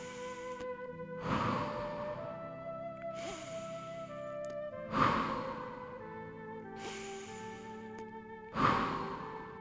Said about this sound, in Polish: Nie mogę, mogę tylko płakać. Kochanie, rozumiem, jest ci przykro.